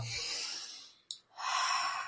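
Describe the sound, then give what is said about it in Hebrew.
A deep breath: a long airy inhale, a brief pause with a small click, then a full, breathy exhale. No one speaks. “ומה שאנחנו מציעים לכם, זה במגע עצמו להגיע לשבע שמונה, וכשמגיעים לשבע שמונה אנחנו לוקחים נשימה עמוקה”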